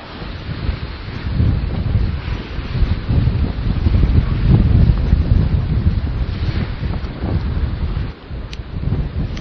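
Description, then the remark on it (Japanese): Strong wind buffets a microphone fitted with a windjammer in a steady, rumbling roar, heavy in the low end with surging gusts throughout and a brief dip near the end. No one speaks. “えー、そんなわけで、あまりにも風が強いので、今、ちゃんと撮れてるかどうか、あのー、今日はイヤホンを持ってきて、チェックしたんですが、すごいな、この、ウィンドウジャマー。”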